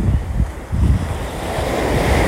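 Sea waves breaking on the shore in a steady, full roar, with a couple of heavier surges in the first second and rumbling wind buffeting the microphone throughout. No voices.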